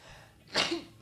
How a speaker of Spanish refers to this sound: Salud. Quise detener el estornudo.